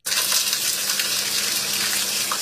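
A lightly floured tangliyu (pond goby) fish is fried golden in a hot pan in Suzhou, China, for braised fish with bamboo shoot tips: a loud, steady, hissing crackle of frying oil that runs unbroken for a couple of seconds, with no voices.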